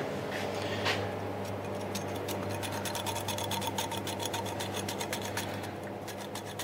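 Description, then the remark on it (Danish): A black truffle being shaved in slices as thin as possible onto a pizza with mozzarella and cooked Italian ham: quick, evenly repeated dry scraping strokes, steady and fairly loud, over a constant low hum, with no one talking. “Så vi starter lige med den sorte på pizzaen med mozzarella og kogt italiensk skinke.”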